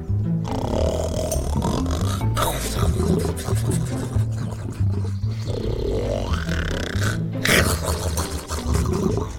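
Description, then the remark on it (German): A sleeping lion, lying on its back in a forest in the sun, snores loudly, a deep, rough rumble that rolls on in long breaths with brief catches between them, growly and continuous throughout. “Er schnarchte dabei wie ein Donnerwetter.”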